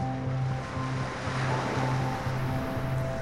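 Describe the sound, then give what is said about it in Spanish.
Ocean waves wash steadily onto the shore in a continuous, fairly loud roar that swells slightly midway, with a low, rhythmically pulsing hum underneath and no voices. “Permite que todos tus sentidos se conecten con la experiencia del mar. Hoy tú y yo estamos en el mar.”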